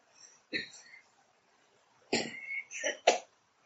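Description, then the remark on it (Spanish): A small cough, heard as a brief throaty burst followed a moment later by two or three quick, harsher coughs, with no talking around them. “Perdón por esa tosecita.”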